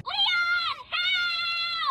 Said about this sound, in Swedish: Ja. Det, det där, alltså det, jag drömmer mardrömmar ja. om det där skriket.